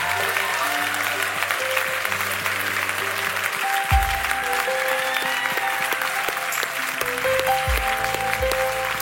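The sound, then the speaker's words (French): A church audience applauds and cheers loudly and continuously to celebrate Jesus, dense clapping over sustained organ or keyboard chords, with a few low swells beneath the crowd noise. “Et tous ceux qui veulent célébrer Jésus lui donnent une autre acclamation aujourd'hui.”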